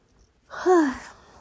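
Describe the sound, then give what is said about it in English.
A single drawn-out human yawn at 10:31 at night, rising into a breathy, voiced groan that slides downward in pitch and trails off after about a second. “I just sorry, that was a yawn.”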